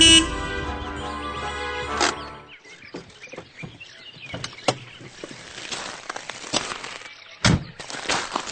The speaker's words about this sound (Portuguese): Desculpe, professor, mas a gente ouve um carro andando e alguém chegando no campo. Portanto, está tudo claro.